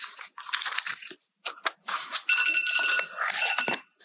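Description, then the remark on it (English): An alarm rings with a bright, steady electronic tone for a couple of seconds, mixed with loud crackling, crunching noise that cuts out in brief gaps. No one speaks. “That was probably someone's alarm to wake up in the middle of my talk.”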